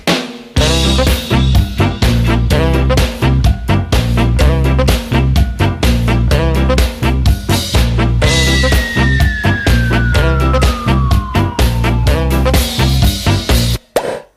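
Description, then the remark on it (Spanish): Loud, driving theme jingle with a steady punchy beat, the tune for a weekly segment where tracks worth hearing are played; partway through, a siren-like tone slides slowly downward over the music before the jingle cuts off abruptly. No one speaks. “Ay, esta sintonía indica ese momento de la semana maravilloso, glorioso, en el, que escuchamos temas que realmente merecen la pena.”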